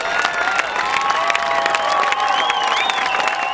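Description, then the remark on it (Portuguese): A crowd claps and cheers steadily to welcome a guest, with dense continuous applause and scattered whoops and shouts rising over it, fairly loud throughout. “Não, não, gente. Várias salvas de palmas.”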